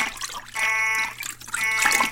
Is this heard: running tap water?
yes